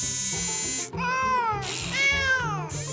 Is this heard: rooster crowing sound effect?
no